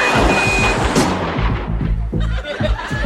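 A car crash in a bank's parking lot as a car backing out hits the custom fender of a $35,000 automobile: a loud burst of crunching impact followed by a series of heavy, rattling thuds and scraping metal noise over about three seconds, with no voices.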